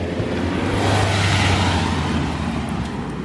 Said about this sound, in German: Ja, man hört manchmal am Gasgeben der Menschen, wie aggressiv sie gerade sind, oder?